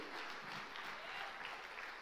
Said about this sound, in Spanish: Oh, alguien que lo crea, dele un fuerte aplauso al Dios del cielo.